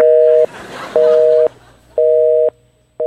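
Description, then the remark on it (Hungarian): A telephone busy signal: steady two-pitch tone pulses about half a second long, repeating at regular intervals with brief gaps, loud and clear over faint background noise. “Na hát, a fene vigye ezt a telefonvonalat, hát sajnos már úgyis csak egyetlen betelefonálóra maradt időnk.”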